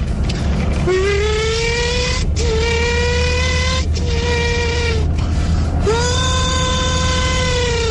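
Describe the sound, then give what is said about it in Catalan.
A CBR superbike motorcycle belonging to a radio listener, recorded by that listener, revs hard in about four bursts, each whining upward in pitch before easing off. The last rev is the longest and strongest, over a steady rumbling idle with no talking. “està gravant roda aquesta Superbike d'aquest fantàstic oient.”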